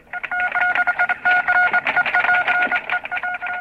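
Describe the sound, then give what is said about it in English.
A telephone is dialed with a quick, steady run of touch-tone beeps, one keypress after another, fairly loud with no voices over them. “No, the wire's dead. Well, keep calling.”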